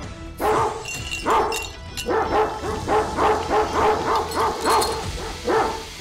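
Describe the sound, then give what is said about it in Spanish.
A dog barks repeatedly in a quick, uneven series of sharp yaps, mixed with high whimpers, loud against a low background rumble. “Quíteme ese perro. Ya rápido, me está molestando.”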